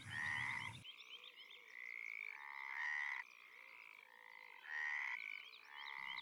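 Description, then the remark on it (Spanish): A frog croaks loudly in a steady series of buzzing, throaty calls, each a second or so long, with no one speaking. A brief burst of noise comes first. “¡Aguarda! ¡Aguarda! le gritó la rana.”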